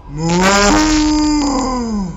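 A cow moos once in a long, loud, sustained call lasting about two seconds, with a low droning pitch that lifts slightly and then sags toward the end.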